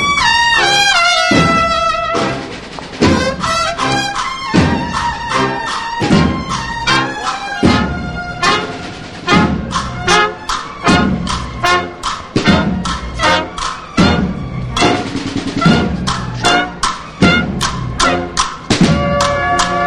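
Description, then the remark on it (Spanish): The Banda de Cornetas y Tambores del Santísimo Cristo de la Expiración plays a loud, steady march: bright, blaring brass phrases over regular, punchy drumbeats that continue throughout without any talking. “que como decíamos, un registro de la banda de cornetas y tambores del Santísimo Cristo de la Expiración totalmente diferente a lo que ayer escuchamos con el paso de la Santa Cena.”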